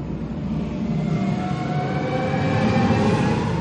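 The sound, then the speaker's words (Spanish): A spaceship piloted by Nebula approaches Gamora, its deep, rumbling engine drone with faint whining tones underneath swelling slightly louder as it draws near, continuous and steady with no voices. “Se acerca una nave.”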